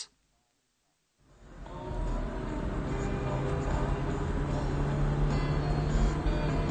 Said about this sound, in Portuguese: Durante a viagem, a polícia para o carro de Andreas.